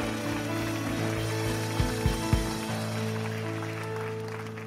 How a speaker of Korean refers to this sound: 놀라운 이름 앞에 영광의 박수 크게 올려드립시다. 할렐루야!